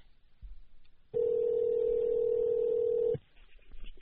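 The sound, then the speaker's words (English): A single ringback tone from an outgoing phone call placed by a radio show host, a steady electronic purr lasting about two seconds, heard over a quiet line with no one speaking. “Running bad tonight with phone calls.”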